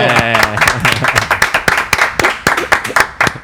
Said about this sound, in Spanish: ¿Viste que acá se aplaude?